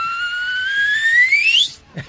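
A Mexican man whistles a single long note that glides steadily upward in pitch, loud, then cuts off abruptly, followed by a brief soft thump.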